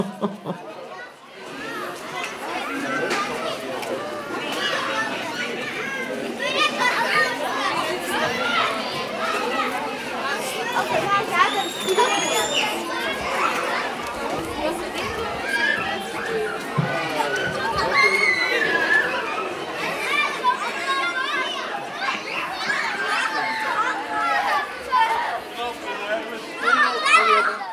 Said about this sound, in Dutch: een school in de buurt en ze reclameren dat de kinderen te veel lawaai maken